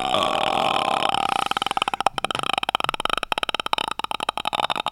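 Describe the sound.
A voice imitates a fetal heartbeat monitor placed on a pregnant belly, likened to a sound in the film The Grudge, starting with a sustained throaty tone that breaks into a fast, rattling stream of pulses, fairly loud with no other sounds.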